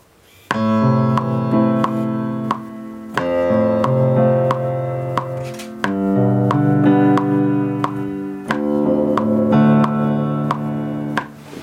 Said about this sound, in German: Jetzt lasse ich das Meter Metronom laufen.